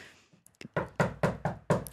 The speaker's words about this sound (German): Klopferfaust und angelegter Applaus